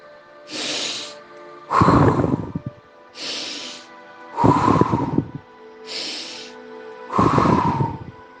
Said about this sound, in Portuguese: Vamos fazer uma série de respirações curtas e uma alongada, para que seu cérebro fique bem oxigenado. Uma respiração, três respirações rápidas e uma alongada.